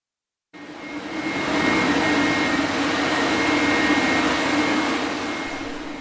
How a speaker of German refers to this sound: Hier steht die Pumpstation, von der das Wasser 450 Meter hangaufwärts gedrückt wird.